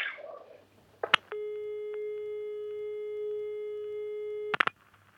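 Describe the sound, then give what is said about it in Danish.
A click, then a steady electronic telephone tone holds for about three seconds before another click cuts it off, ending a late-night phone call, heard clear with faint background noise around it. “Her ender historien om Maria. Med en telefonsamtale en sen nattetime i december.”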